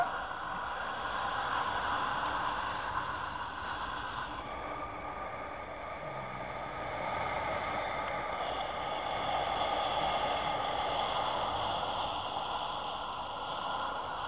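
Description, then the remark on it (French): A steady, even rush of calm wind made by blowing hisses on without pause at the same speed, its level barely changing, a soft continuous airy whoosh with no voices. “C'est un vent calme toujours pareil, à la même vitesse.”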